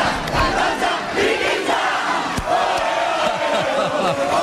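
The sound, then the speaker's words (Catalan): A capgrossos festival troupe chants together in unison at the Santes festival in July, a loud, dense crowd of voices with shouted accents over a steady roar of people. “Segurament si heu passat per les Santes al mes de juliol, heu escoltat en més d'una ocasió aquest càntic dels capgrossos.”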